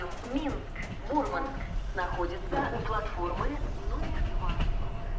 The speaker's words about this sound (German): Ich fahre mit dem Zug von St. Petersburg 800 Kilometer immer nur nach Norden.